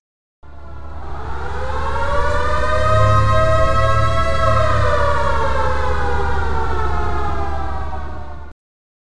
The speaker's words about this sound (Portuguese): então vai ter spoiler. A edição tá com uma sirene de spoilers